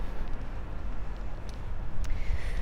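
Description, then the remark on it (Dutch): A car passes by, its loud, steady rumble of engine and tire noise filling the whole moment, with a couple of brief clicks near the end and no one speaking. “oh, een auto, een heleboel herrie.”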